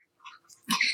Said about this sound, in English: That's a dog drinking, by the way. Thirsty pup. Yeah. It's kind of a strange sound. You don't know what it is.